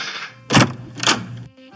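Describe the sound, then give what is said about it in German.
Two solid clunks about half a second apart as the key is used to unlock hotel room door 312 and the door swings open, with a low hum behind and no one speaking. “Wollen wir reingehen oder bestaunen wir noch weiter die Tür?”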